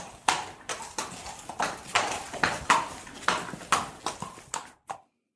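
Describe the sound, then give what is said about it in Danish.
An Icelandic horse's hooves clip-clop in a steady rhythm, sharp knocks on hard ground repeating for about five seconds before stopping abruptly, with no voices. “jeg synes jo, sådan en islandsk hest, den er meget stor, og jeg synes, der er langt ned”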